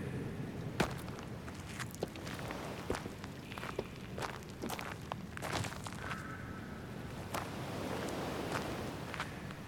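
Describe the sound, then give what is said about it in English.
Footsteps on the stone steps of an old lighthouse, a steady series of sharp scuffs and taps at an uneven walking pace, set against a low rushing wind background. “Hey, let's make our way around those steps.”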